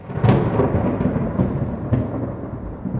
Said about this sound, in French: et qu'un terrible roulement de tonnerre mettait tout le monde debout, à l'exception de Mrs. Omney qui s'évanouit.